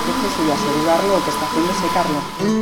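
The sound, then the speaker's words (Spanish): A dryer blows air in a steady, continuous rush with a faint high whine, drying a water-based adhesive used to re-attach lifting paint flakes to a canvas painting, while a person talks over it throughout. “el proceso y asegurarlo lo que está haciendo secarlo.”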